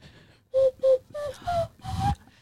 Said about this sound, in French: j'ai appris un truc à l'école, à la récré, j'ai plus appris là, euh, qui était de souffler dans mes mains et de faire comme de la flûte. C'est-à-dire si tu me tiens le micro là deux secondes, tiens-moi le micro, euh, tu vois ça, ça, ça fait comme ça.